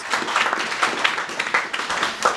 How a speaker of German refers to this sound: Können wir auch mal applaudieren. Applaus Applaus